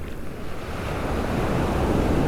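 Ocean waves wash steadily onto a sandy shore as the sun hides behind clouds, in a continuous, broad rushing roar, with a low rumble of wind buffeting the microphone underneath. No one speaks.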